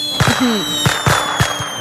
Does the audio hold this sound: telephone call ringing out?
no